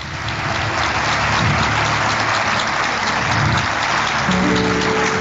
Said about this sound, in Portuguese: Deus seja louvado, uma salva de palmas para o Senhor nesse momento.